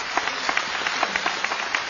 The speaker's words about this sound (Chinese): 那么在这里真的应该把掌声再次送给贾先生